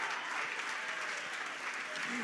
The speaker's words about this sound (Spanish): Vamos a ponernos de pie, dar ese aplauso de pie, honrando la palabra en esta hora. Vamos, denle ese aplauso fuerte a Él.